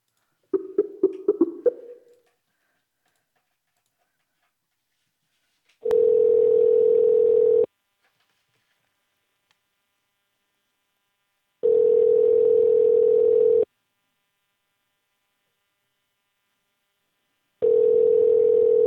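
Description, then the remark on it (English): A quick burst of keypad dialing beeps, then three long, steady ringback tones about two seconds each, separated by silent gaps, as an outgoing phone call to a man who had just hung up rings on the other end. “oh my god, let's call that fucker back. I'm sorry. We we're gonna have to call him back.”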